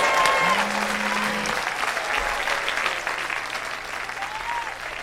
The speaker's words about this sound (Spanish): Aplauso para las rosas.